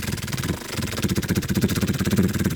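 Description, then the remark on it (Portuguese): A voice imitates the purr of a cat that is settling into position on a bed where someone sleeps: a low rumbling drone with rapid rhythmic pulsing that swells after a brief dip, steady, sounding almost like an idling engine. “Ele basicamente demora 10 anos a achar a posição quando achares a posição, quando ele achar a posição, tu já viraste a tua, portanto ele vai repetir o mesmo processo, mas agora com o trator ligado, que é o que os gatos fazem.”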